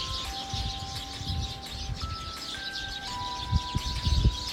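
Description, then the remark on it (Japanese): A flock of birds, just returned together in the evening to a single tree, chirps and twitters in a dense, continuous chorus, while a simple tonal melody plays steadily alongside them over a low background rumble. “音楽が「あ」と急にこの鳥の鳴き声 集団で今帰ってきましてね一本の木に、えー、たくさんの鳥たちがピーチクパチク音楽に合わせてさえずっておりますはい”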